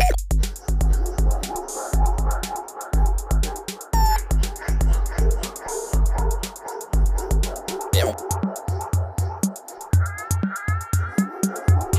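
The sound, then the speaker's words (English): An agitated female dog barks and yips in quick, uneven bursts, mixed with whiny whimpering, loud throughout, with a steady low background rumble underneath. “Uh, otherwise, we can just take a break because my dog is hitting neuroses point.”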